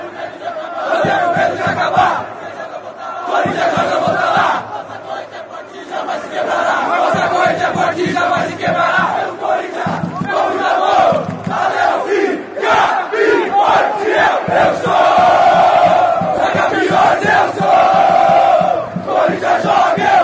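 A large crowd of Corinthians football supporters chants in unison, a loud, sustained roar of voices with rhythmic surges and pulsing accents throughout, no individual speech standing out.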